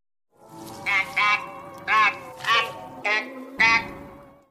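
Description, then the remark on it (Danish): An old film's Martian voices effect, made by someone guessing how Martians might talk: six warbling, squawky bursts with a wavering, quacking pitch, rising and falling in quick succession over a steady low droning hum. No one speaks. “Det er nemlig lyden af marsboere. Eller det vil sige lyden fra en gammel film.”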